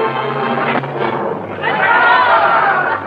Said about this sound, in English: The reign of terror sweeps through the land in all its fury, and each day Madame la Guillotine has fed her share of human life. The dripping blade rises and falls, and the crowd counts in monotonous rhythm as each noble head rolls to the ground.